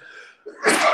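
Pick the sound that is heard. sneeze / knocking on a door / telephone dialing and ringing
sneeze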